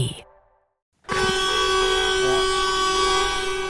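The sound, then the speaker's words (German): After a brief gap, tractor horns blare loudly and continuously as thousands of farmers protest with their tractors parked on motorway entrances, several tones overlapping in a steady, sustained honking chorus with a rumbling background and no one speaking. “Ja, so klingt es, wenn tausende Landwirtinnen und Landwirte auf die Straße gehen, protestieren, ihre Trecker auf die Autobahneinfahrten stellen, hupen und überhaupt Straßen blockieren im ganzen Land.”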